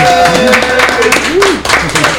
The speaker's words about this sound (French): Allez, rapidement, on applaudit bien sûr notre invité